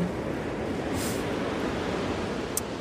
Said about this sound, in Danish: Ej, ja, nu får vi lige lidt øh, vind.